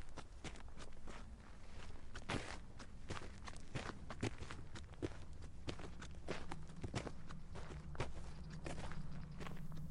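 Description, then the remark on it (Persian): Steady footsteps walk along a hard street, Sepah Street, at an even pace, each step sharp, with low traffic-like rumble and ambient noise underneath, evoking the French painter and architect Eugène Flandin walking this street 215 years ago. “یکی از زیباترین خیابونهایی که من وزیدن درش رو دوست دارم خیابونی که الان شما به اسم خیابون سپه میشناسید اوژن فراندن یکی دیگه از فرانسوی هایی که نقاش و معمار هم بود 215 سال پیش توی این خیابون قدم میزنه”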